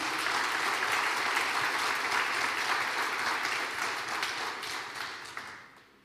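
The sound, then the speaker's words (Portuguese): A church audience applauds the Lord Jesus loudly, many hands clapping in a dense, steady roar for several seconds before it gradually thins and fades out. “Aplauda o Senhor Jesus bem forte aí.”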